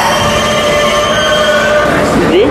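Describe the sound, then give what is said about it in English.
A Queens-bound E train on the New York subway, running via the F line toward 42nd Street–Bryant Park, roars along the rails: a loud steady rumble laced with high metallic wheel-squeal tones, and a brief rising screech near the end. “This is a Queens-bound E train via the F line.”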